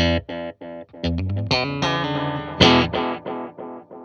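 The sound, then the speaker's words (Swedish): An electric guitar played through an echo delay pedal plays a short run of plucked notes and chords, each one trailing into repeating echoes that smear and overlap, giving a washy, slightly distorted sound. No voices are present. “De tre understa rattarna kan även göra tape, age, och bas och, och diskant på, på själva ekot.”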